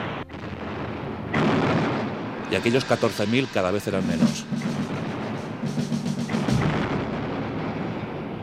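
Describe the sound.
Booming cannon fire and crackling musketry from a battle between advancing Southern troops and Union troops firing on their flanks, loud and dense with repeated blasts, running beneath a man's narration.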